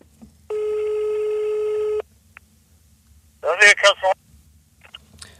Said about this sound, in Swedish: Vi ringer Loffe Karlsson